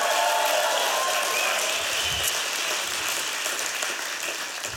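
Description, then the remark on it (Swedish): An audience applauds a speaker steadily, a dense wash of many hands clapping at once that stays loud throughout and fades only slightly toward the end, with no voices heard. “Ge henne en stor applåd”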